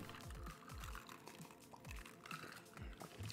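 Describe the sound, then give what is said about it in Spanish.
Someone takes a drink, with a series of quiet gulps and liquid sloshing sounds in a steady rhythm, and no talking. “Dejen tomo.”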